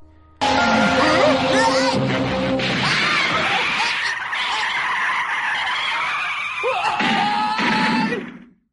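A car's tires screech loudly in a long, wailing skid that lasts several seconds as the car runs over Goku, the squeal rising and warbling before cutting off abruptly.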